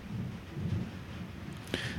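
Rain begins and falls steadily while a low rumble of thunder rolls underneath, with a sharp crackle near the end; no one speaks.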